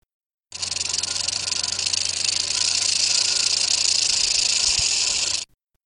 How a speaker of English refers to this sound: Baby rattlesnakes only have a little button at the tip of their tail, but each time the snake sheds its skin, it grows a new segment of its rattle. This is what a rattlesnake's tail vibration sounds like.